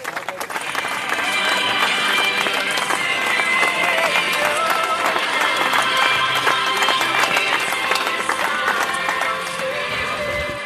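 Fans holding German flags along a red carpet cheer and shout steadily as the mare Mandy arrives home from a truck, while music plays underneath; the dense, loud mix starts after a brief quiet moment and holds for about ten seconds.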